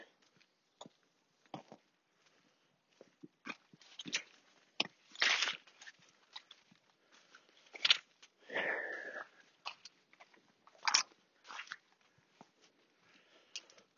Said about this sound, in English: Two dogs. They're just being crazy. Two kind of collies by the look of it.